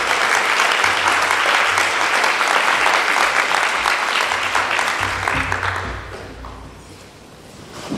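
Sustained applause from an audience at a conference on experimental research in education in France, for a speaker coming to the podium to give a presentation, a dense wash of many hands clapping that stays loud for several seconds before tapering off toward the end.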